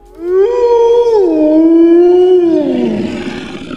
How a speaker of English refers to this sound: The wolves have begun howling, though you didn't notice it